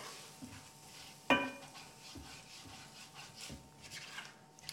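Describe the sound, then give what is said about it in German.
Spices being stirred and scraped while briefly roasting in an enamel-coated cast-iron pot, with one sharp metallic clank early on, then steady rubbing and scraping over a faint sizzling hiss. “Du machst das jetzt Ganze wieder in deinen gusseisernen Topf.”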